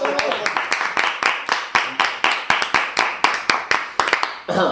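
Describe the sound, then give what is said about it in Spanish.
Applause from a small group, with sharp claps falling in a fairly steady, quick rhythm for several seconds over a murmur of voices, fairly loud throughout. “Un aplauso, por favor.”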